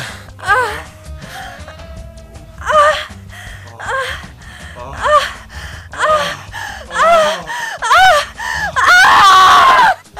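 A woman's voice cries out in a series of loud, strained vocalizations and sharp gasps, building to a sustained high scream near the end, with no words spoken.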